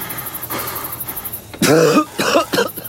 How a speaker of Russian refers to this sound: … имитирует громкий кашель.